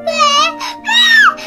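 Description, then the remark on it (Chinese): A child cries in two long, high-pitched wailing bursts with a brief break between them, the second rising and then dropping sharply, followed by the start of another sob. “想买新玩具的时候，小熊哭了。”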